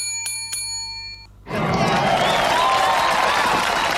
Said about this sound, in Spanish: Fuerte, fuertísimo ese aplauso.